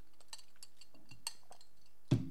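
Someone sips coffee from a mug: a few faint, scattered ceramic clinks and taps, then a louder, dull knock as the mug is set down on a surface. No one speaks.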